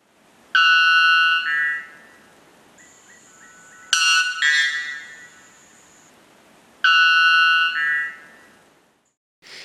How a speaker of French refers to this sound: C'est un cotingidé qui est un oiseau un peu blanc qui euh, chante tout en haut de la canopée et qui chante extrêmement fort. On dirait effectivement une cloche qu'on fait sonner, une espèce de gong qu'on fait sonner.